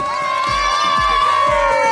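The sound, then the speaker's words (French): Spectators cheer loudly along a race course, many shouting voices overlapping in a steady roar, with a low rhythmic thump recurring about every half second beneath the crowd. “Ferveur populaire exceptionnelle cette année sur le parcours, on se serait cru sur les Champs-Élysées.”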